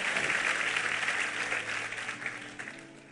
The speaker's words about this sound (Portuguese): Amém, amado? Vamos aplaudi-lo? Vamos ficar em pé, vamos embora.